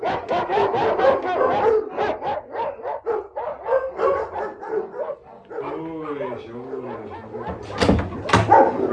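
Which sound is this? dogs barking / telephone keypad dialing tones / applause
dogs barking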